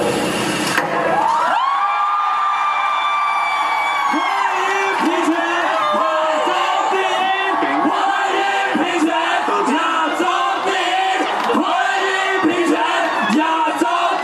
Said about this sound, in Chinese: 听到立法院长苏家全宣布同婚专法三读通过，敲下议事锤的那一刻，立法院外庭同民众欢呼声响彻云霄，现场许多同志激动喜极而泣